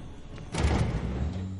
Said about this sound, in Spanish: Abren una puerta y entran en una sala.